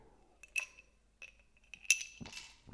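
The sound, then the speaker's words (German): A small, nearly empty gin glass clinks a couple of times as someone drinks from it, with bright ringing taps, followed by a soft rustling sip or shuffle. Quiet, with no one speaking. “Sekunde, ich trinke hier schon, ich habe so ein kleines Gin-Glas nur, das ist jetzt fast leer.”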